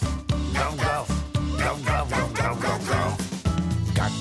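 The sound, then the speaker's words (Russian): A voice imitates a dog barking, singing 'gav-gav' in a quick, rhythmic string of short barks over steady background music, loud throughout. “Как кричит крокодил, гав-гав-гав-гав-гав. Он собак проглотил, гав-гав-гав-гав-гав.”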